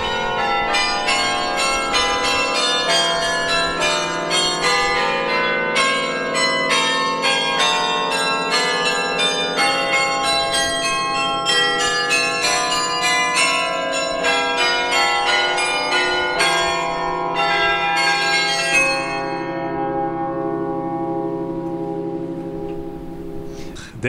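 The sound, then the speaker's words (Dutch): Church bells ring out continuously in dense, overlapping peals with rich layered tones, carried on the wind, loud and steady for about twenty seconds before the ringing thins and fades at the end. No voices. “Heel bijzonder hoe die, hoe die klokken doorklinken. En de wind neemt het over.”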